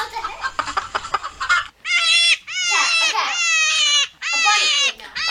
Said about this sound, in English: Chicken. A chicken. Yes.